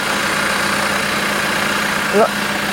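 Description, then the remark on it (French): A heavy machine loading topsoil idles its engine in a steady, continuous drone, with a brief faint voice near the end. “il a un ben, il, il, est en train de, charger donc les, euh, cette terre. Est-ce qu'on va l'entendre Je sais pas. le moteur peut-être.”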